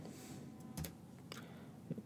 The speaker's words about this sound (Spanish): mi Biblia electrónica si estás escuchando los tic del teclado es porque estoy justamente eso, tecleando para buscarlo en la Biblia.